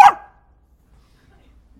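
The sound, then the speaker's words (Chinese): A single sharp, high-pitched yap, a person's voice imitating a neighbour's small dog barking, loud and abrupt at the very start and then quickly gone, leaving near silence. “学多像！天天早上起来，我被这声音吵醒。啊，我们家邻居养一小狗，每天早上四点半，在我们家窗户底下，不停，哎，直到你起来为止。”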